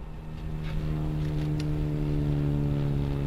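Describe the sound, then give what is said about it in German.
A twin-fuselage fuel-cell aircraft takes off from the runway at Stuttgart Airport, accelerating past 80 and 100 km/h: a loud, steady drone with a low humming tone over rushing noise, swelling during the first half second and then holding level. “Es ist ein außergewöhnliches Flugzeug, das von der Startbahn des Flughafens Stuttgart abhebt.”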